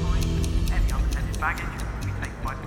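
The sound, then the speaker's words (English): A bomb timer set in a calculator ticks steadily, about four sharp clicks per second, clear above a low rumbling background with a faint murmur of voices. “Unaware of the ticking bomb, Murphy cleared security without issue.”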